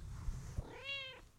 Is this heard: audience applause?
no